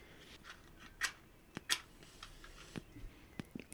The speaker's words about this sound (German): Schön handgemacht hier mit äh, Streichhölzern wird hier die Pfeife befeuert. Vielleicht hört man das ja auch ein bisschen. Das Rascheln, das ist von unserem äh, hohen Streichholzverbrauch.